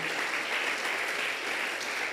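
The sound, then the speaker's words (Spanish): An audience at Min Church in Ciudad Miguel Alemán, Tamaulipas, applauds the Lord loudly and steadily, many hands clapping in a dense, continuous wash of sound that holds at an even level for the whole stretch, with no voices standing out. “¿Por qué no le da fuerte el aplauso al Señor?”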